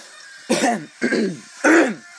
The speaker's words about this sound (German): Ich mal wieder am Husten, passt direkt zur Musik.